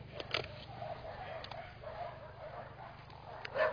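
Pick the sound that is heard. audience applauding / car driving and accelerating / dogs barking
dogs barking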